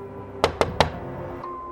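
Three sharp knocks on a door in quick, even succession, fairly loud against a low steady hum, followed by quiet.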